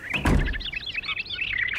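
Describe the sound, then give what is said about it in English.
The door of Snow White's cottage swings open with a brief low thump and rattle, while several small birds inside chirp and tweet steadily, their bright calls continuing throughout. “I would have left the door open for you, but the birds get distracted and tend to fly away if I do.”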